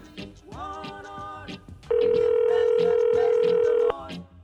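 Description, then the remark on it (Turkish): A steady electronic ringing tone on a phone line, as an outgoing call is placed, sounds loudly for about two seconds, preceded by a softer tonal hum, with faint background chatter around it. “Çalıyor.”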